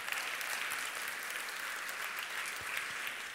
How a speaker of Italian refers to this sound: Amen. Facciamo un applauso al Signore nostro Dio.